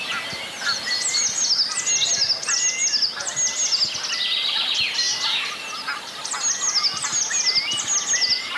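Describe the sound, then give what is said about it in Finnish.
A Eurasian curlew calls amid a busy chorus of other birds, clear rising whistles and chirps overlapping continuously, with no voices. “Ja kuovi. Kuovi kuolla. Tämä oli hieno.”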